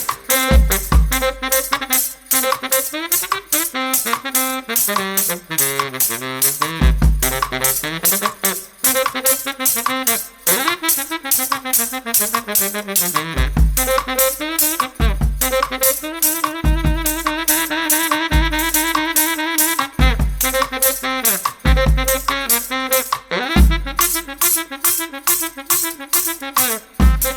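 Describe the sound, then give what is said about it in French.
A brass band plays lively, danceable music with a steady driving drum beat and rich layered horns, loud throughout, with no talking. “On l'entend de le morceau …, volume 7, numéro 68.”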